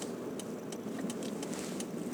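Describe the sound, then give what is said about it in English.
Steady engine and road rumble from inside a car driving in North America, with faint, brief rattles and clicks ticking in now and then. No one speaks. “Some dude talking whatever in his car while driving.”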